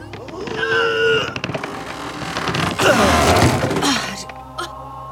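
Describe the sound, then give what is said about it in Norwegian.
A heavy coffin lid, cracked by the weight of earth, is pried open, with loud creaking, groaning wood and splintering cracks that grind on for several seconds before easing off. “Ja, da åpner vi lokket.”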